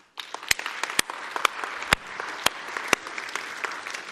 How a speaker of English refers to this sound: Um, would, would one person just applaud me, please. With just one person, anybody. Thank you. No, just one. No, no, keep, don't stop. Now let's all let's all clap.